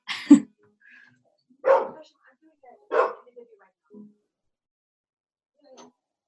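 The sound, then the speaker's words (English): A dog barks three times at a steady pace, sharp, with a few faint yips and small sounds in between and quiet gaps after. “Sweet doggy.”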